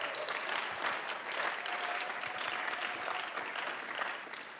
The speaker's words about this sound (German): Lasst uns ihnen nochmal echt einen Applaus geben.